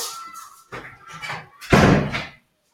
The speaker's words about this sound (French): Je vais juste fermer la fenêtre parce que j'en peux plus.